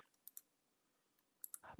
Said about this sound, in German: Wer klickt ha, eigentlich da gerade die ganze Zeit? Weil irgendjemand hört man uns klicken. Ich, ich bin es nicht. Das ist meine scheiß Maus.